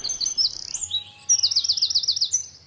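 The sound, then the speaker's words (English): A wren sings loudly, a rapid burst of high, shrill trills and a fast run of repeated chirping notes, bright and piercing with no other sounds around. “they're, they're quite loud. And that's exactly how the wren works.”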